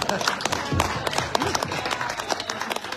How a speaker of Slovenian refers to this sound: Aplavz, prosim.